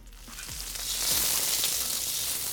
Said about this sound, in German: Es sollte zumindest 6 cm hoch in der Pfanne stehen. Jetzt das Schnitzel an einer Seite anfassen und vom Körper weg ins heiße Schmalz geben.